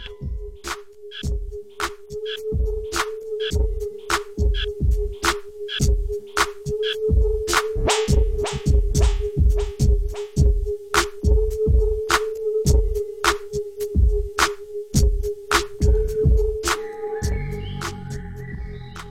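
A hip-hop beat plays on its own, with heavy booming kicks and sharp snare hits in a steady rhythm over a sustained droning synth note, shifting to a denser texture at the end.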